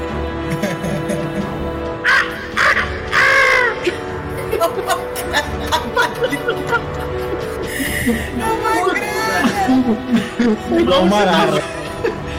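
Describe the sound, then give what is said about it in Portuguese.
A person voices several short, shrill shrieks imitating the startled scream of the character Natasha, fairly loud, mixed with chuckling and other people talking around them. “…, como que a, é, que a Natasha dá esse grito de susto?”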